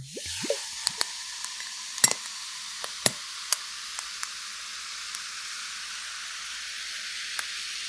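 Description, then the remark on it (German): Tonic water poured into a glass fizzes and crackles over ice cubes in a steady carbonated hiss, with sharp clinks and pops scattered throughout, loudest near the start as the pour settles. “Mein Tonic Water auf und gieße mir das jetzt in mein Glas mit den Eiswürfeln.”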